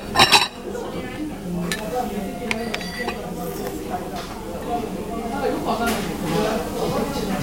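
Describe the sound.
Plates and cutlery clink and scrape as dishes are shifted across a table, a sharp clatter at the start followed by scattered lighter clinks, with people talking softly in the background.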